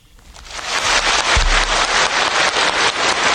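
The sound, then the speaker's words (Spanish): Loud, dense unison applause from China's National People's Assembly, gathered in the Great Hall of the People on Tiananmen Square as Xi Jinping is re-elected for a third five-year term as president. Many hands clap together in a steady rhythmic pulse, swelling over the first second and then holding strong with no voices. “Así, con los aplausos al unísono de la Asamblea Popular Nacional, congregada en el Gran Salón del Pueblo, situado en la plaza de Tiananmen, Xi Jinping fue reelegido para un tercer mandato de cinco años como presidente de China.”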